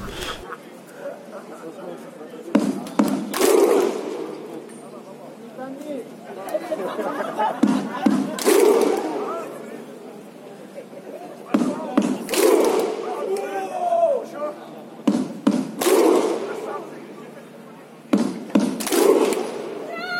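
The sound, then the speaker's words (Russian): A large stadium crowd performs a thunderclap chant, with loud unison clap-and-shout bursts, two strikes at a time, that gradually come faster and faster, over a steady murmur of crowd chatter. “еще два удара опять. И постепенно удары ча- ну, все чаще и чаще становятся, и вот, ну, все это ускоряется”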